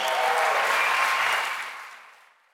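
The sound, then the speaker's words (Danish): A burst of crowd applause at the Venstre party's election night event, dense and loud with scattered whoops, holding steady for about a second before fading out gradually over the next second and a half. “Her der klapper de jo. Det er det største bifald, øh, et af de store bifald i hvert fald, lad os mm.”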